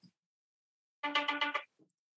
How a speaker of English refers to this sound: no, no, it's my ringtone. I just like to be mildly irritated when my phone rings.